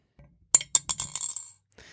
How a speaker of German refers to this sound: Unsere neue Tasse. Wir haben eine Tasse geschenkt gekriegt, äh, eine Adlertasse, wo jetzt der Euro reinkommt.